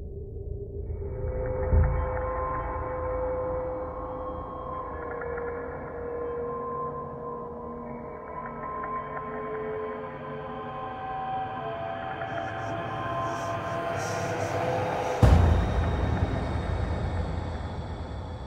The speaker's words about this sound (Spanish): Lo que estáis escuchando es Inner Chains, un nuevo título de terror, otro más, que busca financiación en Kickstarter. Y en este caso, pues es un juego con un Real Engine y se trata de, un juego en primera persona de terror.